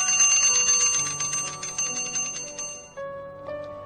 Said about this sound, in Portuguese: O barulho da sineta anunciando o horário do almoço despertou-me de minhas lembranças e dirigi-me ao refeitório.